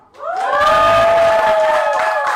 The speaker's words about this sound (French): Pendant une fraction de seconde, j'ai eu peur que vous applaudissiez pas, que vous avez fait comme Ah ouais! Ah ouais! ouais! que je suis vraiment content. Merci d'être là.